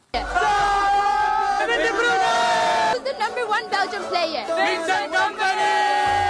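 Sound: football supporters chanting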